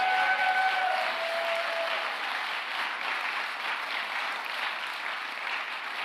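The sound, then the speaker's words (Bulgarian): An audience applauds for Jesus in a steady, dense wash of clapping that holds at an even loudness for several seconds, with a faint high tone lingering briefly at the start and no voices. “О, ако ръкопляскай за Исус, ръкопляскай като че Той е алфата и омегата, той е началото и края, Той е ярката утринна звезда, Той е Твоя Господ, Той е Твоя Спасител, Той е Твоя живот.”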